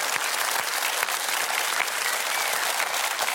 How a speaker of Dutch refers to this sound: Geef ze nog een ongelooflijk applaus, dames en heren.